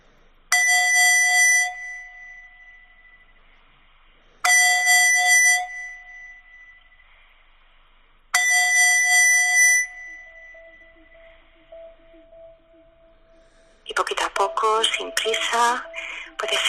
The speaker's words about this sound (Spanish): Y yo te invito a que ahora puedas llevar de nuevo tu atención al sonido del cuenco para percibir cuándo empieza y cuándo acaba el sonido.